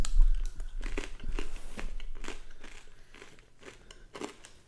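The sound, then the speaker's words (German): Crisp crunching of a dry, caraway-flavored snack being chewed as someone tries it for the first time, a run of irregular crackly bites that gradually soften and fade, with no talking over them. “Aber ich wie kann ich wie Hundefutter. Ich sage dir gerade, was drin ist.”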